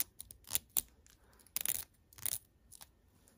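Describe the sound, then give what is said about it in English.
Scratchy strokes of a comb being dragged through hair after brushing, about five bristly swipes in an uneven rhythm, some short and some longer, with no talking. “And then I'm just going to comb, comb.”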